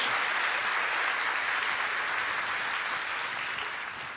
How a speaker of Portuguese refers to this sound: Dá uma salva de palmas ao Senhor aí. Faça bem alto.